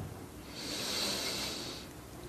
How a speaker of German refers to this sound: Wir nehmen zusammen einen tiefen Atemzug und atmen ein.